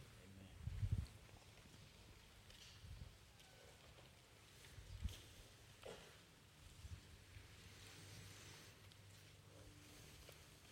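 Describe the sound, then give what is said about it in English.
Many Bible pages turn across a quiet church audience as people look up Revelation chapter 15, a soft, scattered rustle throughout, with a few louder flips and thumps standing out over low room noise; nobody speaks. “I, I still hear pages turning.”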